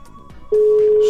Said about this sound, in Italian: Squilla, squilla, squilla ma non risponde, sarà impegnato. È impegnato. No. È strano, non risponde.